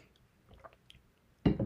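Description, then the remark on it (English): Someone sips water: faint small slurps and mouth sounds, then a louder, breathy gulp or swallow near the end. No one speaks. “Take a sip of water.”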